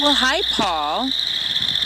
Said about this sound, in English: We are hearing some of Minnesota's frogs, and here in Minnesota we have 14 different kinds of frogs and toads, 11 frogs. What you're hearing in this pond is chorus frogs, one of the most common frogs in the Twin City area.